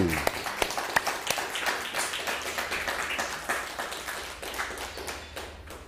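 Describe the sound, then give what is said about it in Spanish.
A crowd breaks into sustained applause, many hands clapping densely and steadily for several seconds, loud, gradually easing off toward the end. “Un fuerte aplauso, por favor, a todas las naciones del mundo.”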